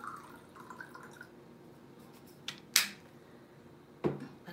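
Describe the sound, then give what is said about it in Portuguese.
Water trickles quietly into a container, with a soft, steady liquid noise broken by a few sharp clinks and drips toward the end. No one speaks. “Vocês estão ouvindo barulhinho, né? Essa é minha água que eu estou enchendo aqui.”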